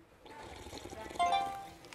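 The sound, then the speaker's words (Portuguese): Liquid pours steadily into a cup or glass, a splashy trickling stream whose tone rises slightly as the vessel fills, lasting about two seconds with no talking. “Aqui tem o seu chá e a garrafa de água.”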